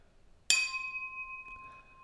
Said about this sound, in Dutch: Zullen we nog één keer... Eh, Voor de laatste keer. Echt de laatste keer dan. Klinken